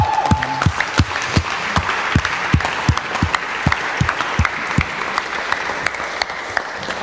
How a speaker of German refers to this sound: Warum stehen wir nicht einfach kurz auf? Lass uns der Person einen äh, Applaus geben, das ist die beste Entscheidung.